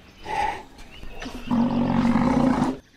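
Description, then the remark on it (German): A northern white rhino contact call, the sound one makes to look for another when they have moved far apart: a short tonal bleat, then a longer, louder, harmonic moaning call held for over a second, clear with no talking. “Manchmal, wenn sie sich sehr weit voneinander entfernt haben, gibt es einen Laut, mit dem die eine nach der anderen sucht.”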